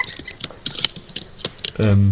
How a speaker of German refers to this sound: Also die Geräuschkulisse, die hier gerade ankommt, ist sehr lustig. Man hört jemanden extrem erfreut lachen und im Hintergrund dieses Tapper, Tapper, Tapper, Tapper vom Computer.